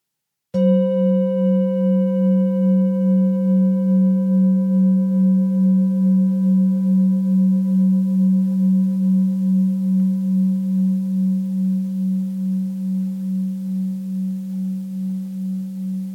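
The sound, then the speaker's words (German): A single gong stroke struck to begin a guided relaxation, with a sharp attack, then a long, steady metallic ring that hums and wavers slowly as it fades gently over about fifteen seconds, with no voices. “Ich schlage jetzt den Gong und deine Gedanken dürfen dem Gong in die Stille folgen.”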